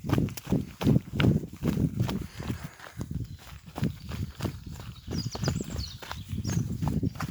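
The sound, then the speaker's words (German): Quick, steady footsteps of someone running in shoes downhill through the forest toward the Johann Waller Hütte, over partly very stony ground, each stride a soft thud with crunching and scuffing, continuing without pause throughout and with no speech. “Nun habe ich wieder Schuhe an und es geht schneller bergab durch den Wald zur Johann Waller Hütte.”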